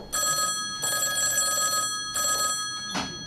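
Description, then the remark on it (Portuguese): An old-fashioned telephone bell, the old telephone of a post-office phone booth at the entrance of a grocery store, rings in bright, metallic bursts, several rings broken by short pauses, fairly loud, with no voices over it. “tinha uma cabine dos correios para quem ligava de longe, de vários lugares do mundo, com saudade. A cabine permanece à entrada da venda com o telefone antigo.”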